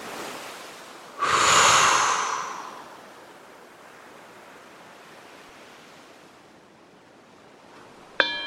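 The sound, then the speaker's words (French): A single forceful exhale after stretching, a loud breathy whoosh lasting over a second, rises sharply and then fades into a quiet hiss, with a brief click at the very end. “je m'étire pour activer la chaîne musculaire et je souffle de façon tonique.”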